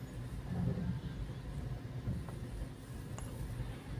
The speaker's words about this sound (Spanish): Aquí en Calzada Tlalpan ahorita hay fácil 10 camiones.